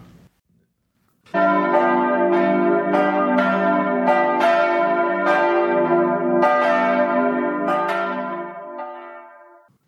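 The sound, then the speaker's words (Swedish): Church bells peal loudly and continuously, overlapping strikes ringing out every half second or so with long shimmering tails, full, gradually fading toward the end. No voices are heard. “Där hörde vi klockorna ringa in till detta tionde avsnitt av Lillhällsmåls andra säsong.”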